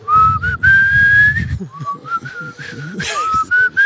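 A person whistles a slow, sustained rock ballad melody, the clear tone gliding between held notes, with a low rumble and brief talk underneath.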